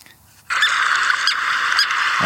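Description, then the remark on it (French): A common tern calls: after a short quiet moment, a loud, high, somewhat raspy cry starts and holds steadily to the end, with a few sharper accents along the way. “Alors la sterne Pierre Garin est un peu différente.”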